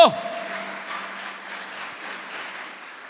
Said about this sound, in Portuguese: e se você crê nisso na tua vida, aplauda ao Senhor Jesus bem alto.